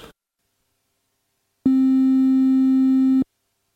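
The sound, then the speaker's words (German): A steady synthesizer triangle wave tone holds one pitch for about a second and a half, soft and mellow with faint upper harmonics, starting and stopping abruptly after a brief silence. “Und ein Dreieck, das ist ja praktisch sowas wie ein Sägezahn, wo die Spitze dann in der Mitte ist.”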